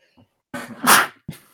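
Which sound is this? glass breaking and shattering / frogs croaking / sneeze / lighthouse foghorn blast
sneeze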